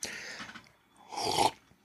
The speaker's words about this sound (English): Mm-mm-mm. First slurp of the episode, guys. 38 minutes in.